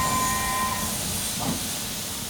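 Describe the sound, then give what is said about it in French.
A steam locomotive standing in a station hisses steadily, a broad continuous rush of steam with faint whistle-like tones and a low, repetitive rumbling mechanism underneath, no voices. “On entend juste le mécanisme répétitif de la machine à vapeur.”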